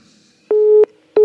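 A telephone busy tone after a listener's call to a phone-in program dropped: steady mid-pitched beeps, each about a third of a second long, repeating at an even pace, loud and alone with no talking.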